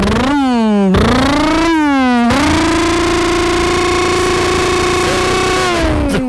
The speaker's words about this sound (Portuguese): Vamos acelerar a moto, ó. Vou dar partida.